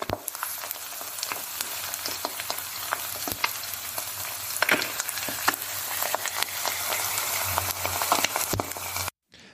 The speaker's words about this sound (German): Ich glaube, da brät was in der Pfanne. Äh, was könnte das sein? Ein Schnitzel. Vielleicht auch ein Spiegelei. Ich lasse das mal. Ich lasse das mal gelten. Es ist das Spiegelei.